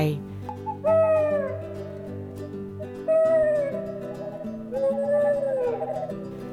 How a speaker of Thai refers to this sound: จากนั้นผู้สร้างก็จับนกฮูกโยนออกไป นกฮูกก็เลยส่งเสียงด้วยความตกใจแล้วก็โบยบินออกไป